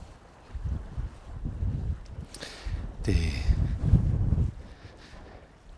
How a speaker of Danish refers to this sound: Jeg er ude på min tur nu, og det blæser helt, helt enormt. sikkert en masse blæst i mikrofonen også.